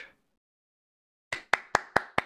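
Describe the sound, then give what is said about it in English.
Five sharp hand claps in quick, even succession after a moment of silence, fairly loud, from a single person rather than a crowd. “this is this is the time for your second pitch, or at least an applause.”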